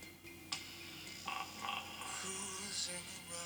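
Music made of dense, croaking frog-like sounds, with a sharp click near the start and a steady chorus of raspy, rhythmic croaks and chirps filling the background, no voices.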